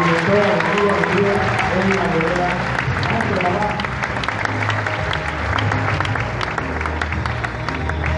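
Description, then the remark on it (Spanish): Sustained audience applause fills the whole stretch, a dense, steady clatter of many clapping hands at a loud, even level, with crowd noise and some voices mixed underneath. “Regálenme un fuerte aplauso”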